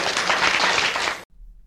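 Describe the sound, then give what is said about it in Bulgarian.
A crowd applauding, a dense, steady wash of clapping that holds for just over a second and then cuts off abruptly into near silence. “Ръкопляскайте!”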